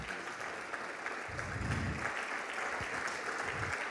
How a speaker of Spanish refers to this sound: Por eso, ¿cuánto les dan? Un aplauso al Señor.